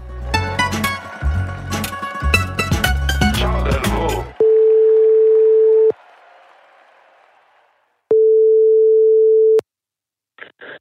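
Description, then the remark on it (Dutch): Two long, steady telephone ringing tones of a call from a studio in Antwerp to a reporter sound clearly after a burst of loud music and applause, each lasting over a second with a pause between them, then a brief click at the end. “We gaan nu bellen met onze geleidende, zal ik hem noemen, reporter”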